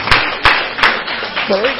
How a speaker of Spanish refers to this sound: Un aplauso a nuestro Señor.